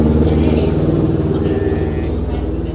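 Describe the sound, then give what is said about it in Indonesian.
A motorcycle engine rumbles loudly, its low throbbing drone holding steady with a slight pulsing rhythm before easing off a little at the end. “yang keras kalau ngomong ya maafin dong ada motor”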